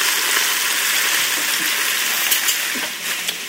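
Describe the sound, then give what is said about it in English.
Steady, hissing crackle of food searing and browning in hot oil in a pressure cooker, fairly loud, with faint pops scattered through a continuous frying sound. “If not, that's what the browning sounds like in the pressure cooker.”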